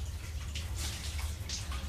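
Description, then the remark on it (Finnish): Muffled water splashing from a wash area outside a sauna door as a man washes, water running down his body, soft irregular bursts over a steady low rumble, heard faintly as if through a closed door. “Saunan oven ulkopuolelta kuuluu vaimeaa loiskintaa.”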